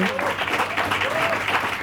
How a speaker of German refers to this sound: Und ich denke, ich spreche für alle, wenn ich sage, dass die Menschen, dass wir einen kräftigen Applaus an dieser Stelle verdient haben, dass wir 500 Tage